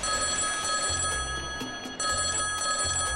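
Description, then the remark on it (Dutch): An old-style telephone bell rings in two long, steady bursts with a brief gap between them, bright and metallic with a constant rattling trill. No one speaks. “Voor al uw lastige klusjes, bel Henk Veerman”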